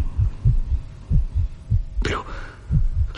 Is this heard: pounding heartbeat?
yes